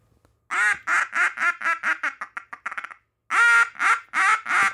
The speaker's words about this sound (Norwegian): Ja, det er flere and. Det er and. Riktig at det er and. Det er Stokkene. Yes, stokkene.